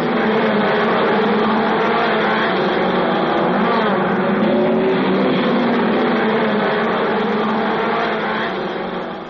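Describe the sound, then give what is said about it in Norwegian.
Motorsport racing engines roar and rev at the harbour in Arendal, Norway, in summer, a loud, continuous drone whose pitch rises and falls as the motors accelerate. No voices, and the noise fades slightly at the end. “Noen foretrekker seiling, men det fins nok av dem som dyrker fart og motorsport på havnen.”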